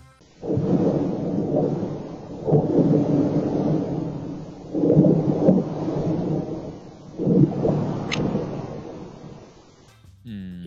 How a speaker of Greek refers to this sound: Λοιπόν, ο ήχος που μόλις ακούσατε είναι ήχη πριν από σεισμό στο Bluff Tail της Γιούτα το 2019.